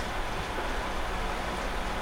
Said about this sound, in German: Ach du heilige Scheiße, jetzt regnet es auch noch.